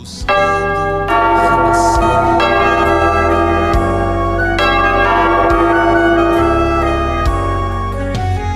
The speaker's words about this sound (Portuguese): Toca o sino, sacristão!